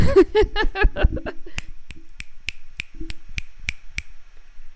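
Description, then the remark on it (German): A brief burst of vocal sound opens, then about nine crisp finger snaps follow in a steady, even rhythm, snapped instead of clapping to show support, fairly loud, each a sharp dry click. “Man schnipst doch statt zu klatschen zur Unterstützung.”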